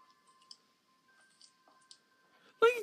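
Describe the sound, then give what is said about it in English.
A few faint, sharp clicks of platform high-heeled shoes on a hard floor as someone walks, unevenly spaced across a couple of seconds, before a voice suddenly breaks in loudly at the end. “Oh, you got high heels on. I can hear it.”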